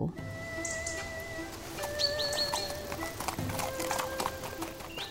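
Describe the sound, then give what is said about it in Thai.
A horse's hooves clip-clop at a steady walking pace as it is led uphill on a mountain, while birds chirp and tweet in the background. No one speaks. “ชักม้าให้เดินขึ้นเขา”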